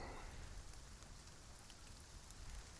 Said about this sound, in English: The clouds came down into the treetops and brought even more rain with them, and the light grew dim, dreamlike.